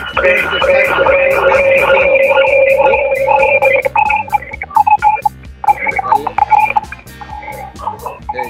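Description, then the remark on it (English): Loud electronic signal interference on a live broadcast: a rapid, rhythmic buzzing pulse laced with steady whining tones, running continuously for several seconds before stuttering and breaking up toward the end. “We got a little interference there.”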